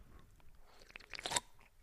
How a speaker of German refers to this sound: Aufnahme läuft aber schon, also schlürf nicht so laut.